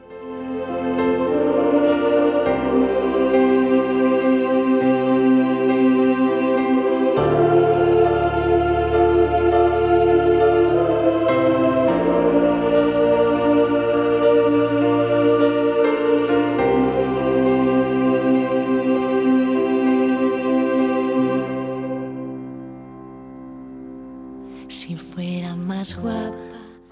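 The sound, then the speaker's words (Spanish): A pop song dedicated to the victims of the 11 March (11M) attack at Atocha plays with full, sustained chords, loud and steady, shifting harmony every few seconds, then fades out near the end, followed by a brief burst of other sound. “te voy a poner una canción de … dedicada a todas las víctimas del 11M”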